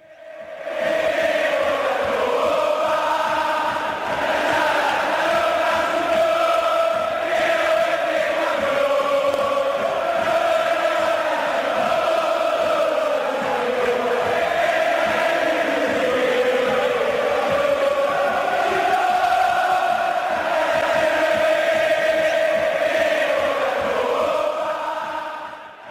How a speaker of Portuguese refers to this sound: Essa é a versão da torcida do São Lourenço.